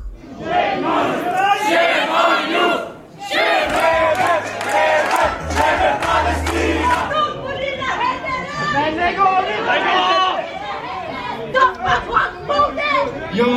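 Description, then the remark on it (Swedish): A crowd of people shouting over one another in a loud, chaotic din, several raised voices clashing at once with no pause: hecklers disrupting a political question session with the audience held by Ulf Kristersson and finance minister Elisabeth Svantesson in Sweden. “Så kan ni som vill förstöra andras möten stanna kvar här.”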